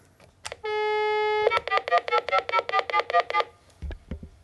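A steady dial tone hums for about a second, then a quick, even run of about eleven clear touch-tone dialing beeps follows as a phone call is placed to a geocacher in Switzerland, with no voices.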